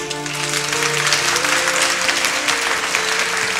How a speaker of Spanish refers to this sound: Un aplauso, por favor.